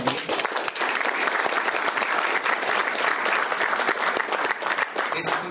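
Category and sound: crowd, round of applause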